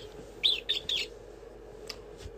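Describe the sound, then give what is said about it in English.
A mouse squeaks three times in quick succession, short high-pitched chirps, followed by a fainter squeak after a pause, over a low steady background hum. “The mouse finds shelter. Mouse.”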